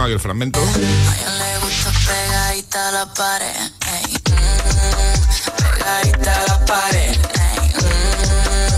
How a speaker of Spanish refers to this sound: unos segundos del videoclip de esta canción que estará protagonizado por unos sonidos urbanos de lo más pegadizo, vamos, que es que yo la he escuchado y ya no puedo parar de cantarla.